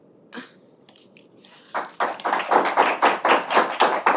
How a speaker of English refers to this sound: Room is clapping vigorously.